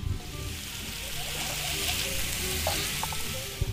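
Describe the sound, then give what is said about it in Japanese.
Meat sizzles steadily on a hot plate powered by electricity from a Mitsubishi Outlander PHEV, with cabbage, onions and carrots also on the plate, a dense crackling hiss that stays loud throughout, with a few sharper pops near the end and no talking. “さあ、ということで、えこのアウトランダー PHEV で、え取った電源からですね、ホットプレートでお肉を焼いて、この後みんなで焼肉パーティーをしていきたいと思います。”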